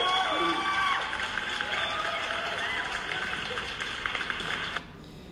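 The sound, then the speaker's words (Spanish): A crowd applauds and cheers for a young man, with shouts and whistles rising above the dense clapping. The loud, steady roar holds for nearly five seconds, then stops abruptly. “La verdad es que sí, yo creo que este chico se merece un aplauso.”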